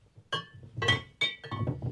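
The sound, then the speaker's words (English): A heavy Glencairn whisky glass clinks and knocks against a hard surface several times in quick succession as it is taken out, with bright ringing tones and soft handling thuds between. “Um, heck, let's go ahead and take my Glencairn glass out here.”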